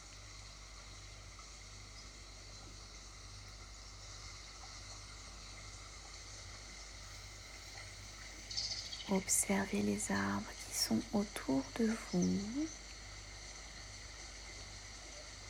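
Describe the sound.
A steady, gentle trickle of a small stream runs throughout at a soft, even level, with a calm voice speaking briefly over it midway.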